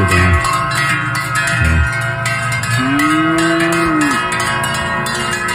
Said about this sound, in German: Und gestern bin ich äh, mit meinem äh, Bruder zusammen äh, und mit der Familie sind wir auf in die Alp gezogen, also Alpauffahrt. Und jetzt sehen wir das kurzes Video, wie wir wie Kühe hochgezügelt auf die Alp.